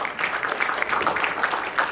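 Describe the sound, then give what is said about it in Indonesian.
An audience claps steadily for two people, a dense patter of many hands sustained at a fairly even loudness for a couple of seconds with no voices over it. “masih tepuk tangan untuk beliau berdua.”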